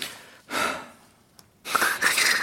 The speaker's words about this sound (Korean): 근데 조금만 빨리 걸어도 숨이 차서 헉헉거리는 사람